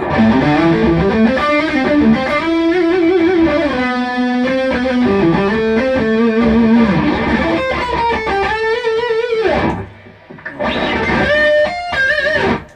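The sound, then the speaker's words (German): A distorted electric guitar, with its noise gate switched off, plays a sustained melodic line with bends and vibrato, washed in reverb, pausing briefly near the end before ringing back in at full volume; no voices. “Ich mach's mal auf Off. Ja, dann kommt der Hall ein bisschen mehr durch.”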